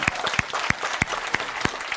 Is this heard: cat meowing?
no